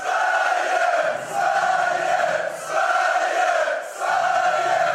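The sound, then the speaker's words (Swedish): A loud stadium crowd cheers from the stands, a dense roar of many voices surging in rhythmic, chant-like swells every second or so, with no one speaking over it. “Vi ska hamna i lite storsvenskhet, kan vi få höra läktaren?”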